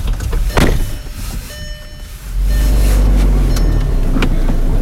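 People get into a car: a few thuds and clunks like car doors closing, then an engine starts and settles into a steady rumble with more small knocks over it.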